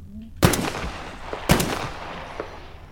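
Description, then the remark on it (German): Two sharp video game gunshots about a second apart, an aimed shot to the head, each a loud crack with a short echoing tail, followed by a fainter pop; no one speaks. “Genau, eingezielter Schuss im Kopf.”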